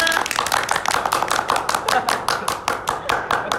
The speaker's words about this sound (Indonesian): sebenarnya tanpa kalian sadari di sekolah kita juga ada satu opa Korea luar biasa tepuk tangan semua ah.